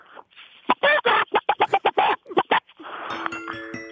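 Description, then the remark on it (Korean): A person on KBS Cool FM radio imitates a hen's clucking as a farewell, a rapid series of about a dozen sharp, loud bursts in uneven rhythm, followed by a brief musical jingle starting at the end. “예, 예 마지막으로 앵콜 예, 아, 닭소리로 마지막 인사드리도록 하겠습니다.”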